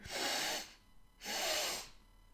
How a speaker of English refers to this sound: Okay, so it's just literally breathe in, breathe in again and then sigh it out.